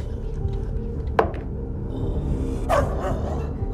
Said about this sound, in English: the one that's barking the, the one that's barking notices you and he stays very close to the other dog and he just starts growling at you okay.